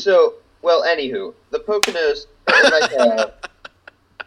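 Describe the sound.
A sharp, close palm slap to the face cuts through people chatting, followed near the end by a few quick, lighter smacking taps.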